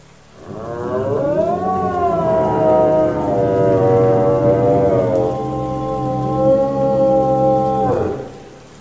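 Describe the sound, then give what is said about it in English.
A monstrous creature with huge teeth opens its jaws impossibly wide and lets out an unholy howl: one loud, sustained cry of about eight seconds, rising slightly at first, then holding a steady, grating pitch before cutting off abruptly. No one speaks. “They opened wider than possible and expelled an unholy howl.”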